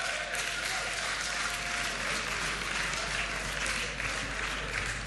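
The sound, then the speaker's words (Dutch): Sustained audience applause for people coming forward to the front, a dense steady wash of many hands clapping at an even loudness for several seconds, with a faint murmur of crowd voices underneath. “Yes, geef ze een hartelijk applaus als ze hier naar voren komen.”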